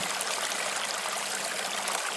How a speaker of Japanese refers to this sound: 静かに川が流れ音を立てているのが聞こえてきます流れる川の音に耳を傾けていると徐々に気持ちが落ち着きストレスや緊張が解きほぐれていきますそのまま川の音と自分の呼吸に意識を集中しましょ